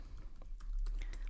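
Soft, irregular clicks of someone typing and googling on a keyboard, a handful of quiet keystrokes spaced unevenly in the background with a low hum underneath and no one speaking.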